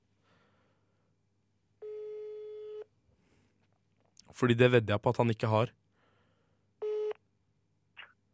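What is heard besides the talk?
telephone ringing tone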